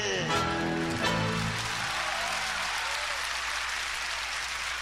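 A crowd applauds steadily in a dense wash of clapping after a tango performance, while the last sustained notes of the tango fade out in the first couple of seconds.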